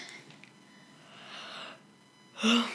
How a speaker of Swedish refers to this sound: bara gäspar. Alltså det, det var för gäspsjukan.